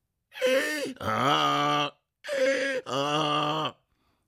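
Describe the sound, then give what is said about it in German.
A human voice mimics a donkey's bray: two loud hee-haw cycles, each a breathy high rasp followed by a lower, strained, harmonic bellow, alone. “Sein ganzes Leben lang hatte er schon seine Stimme trainiert, bis sie diesen unverwechselbaren Klang hatte.”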